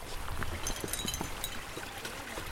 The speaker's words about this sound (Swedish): Det forsar bra här. Ja men bara man kommer förbi där. Men där är det precis den där som är lite fristående. Sen är det så här, precis mitten där man ska gå, där är så där. Man ser hur vattnet rinner så man kommer ju fan duscha totalt.